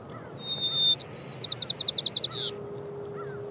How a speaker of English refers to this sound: All white crowned sparrow songs start with a whistle so the whistle kind of alerts other birds that, okay, here I am, I'm singing. Then they have complex notes, and that's kind of like an individual flourish, almost like a signature.